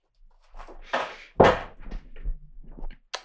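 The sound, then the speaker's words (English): A few dull knocks and thumps of a cat bumping against a door, the loudest a single solid bump midway, with softer rattling taps around it, and no one speaking. “Yeah, it's just a cat just chilling over there. With and uh, the fucking door.”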